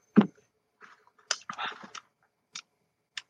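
Wet mouth sounds of someone chewing and swishing rye whiskey in the mouth (a Kentucky chew) while tasting it, a few smacking clicks and a brief squelchy burst, then scattered quiet pops with no talking.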